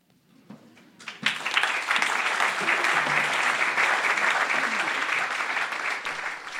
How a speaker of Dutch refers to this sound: Dat applaus klonk voor jou